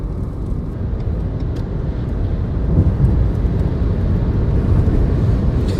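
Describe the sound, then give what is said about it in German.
Steady, dense low rumble inside a car driving at high speed on the Autobahn: constant road and wind roar, slightly swelling midway, with no voices; the car runs relatively quietly despite the speed. “Also was mir an diesem Auto gefällt, ist tatsächlich einfach, dass es relativ ruhig läuft trotz dieser Geschwindigkeit.”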